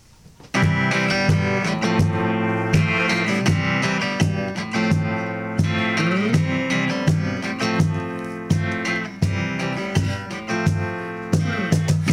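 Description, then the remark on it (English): A live band at Maine's Big Z Live in Auburn launches into a rock song intro after a brief quiet moment, with steady drum hits, full sustained guitar and keyboard chords, and a driving bass line, loud. “What are you going to play for us this first song, guys?”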